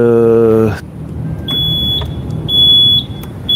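A lorry rumbles past, its low engine noise filling the scene after a brief droning tone, while a thin, high-pitched beep sounds intermittently over the top.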